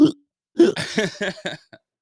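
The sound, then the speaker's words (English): A voice imitates hiccups: a short, sharp vocal gulp, a brief pause, then a quick run of several jerky, voiced hiccup sounds that fade out. “Then make it we get hiccups too.”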